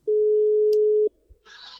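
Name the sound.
telephone ringing tone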